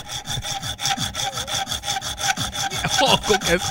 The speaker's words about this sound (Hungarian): Fűrészeljük el akkor itt ezt a vasat, és akkor olajozzuk meg, jó?